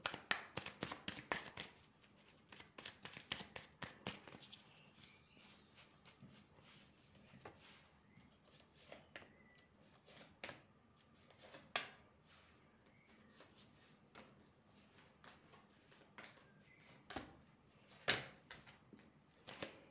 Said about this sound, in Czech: A ještě vytáhneme zrovna karty na toho, ke kterému jste šla a uděláme porovnání.